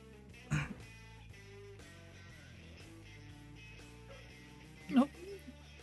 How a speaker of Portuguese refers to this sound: A pausa pra tosse.